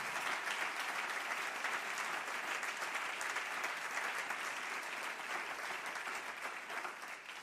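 Sustained audience applause fills the space, a dense steady wash of many hands clapping at once, holding at an even level for several seconds before easing slightly near the end.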